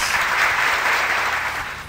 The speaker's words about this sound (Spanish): Los aplausos son exclamadamente para el señor operador,